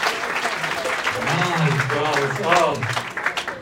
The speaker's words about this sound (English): Come on, hey, round of applause. He took the gamble. He took the gamble.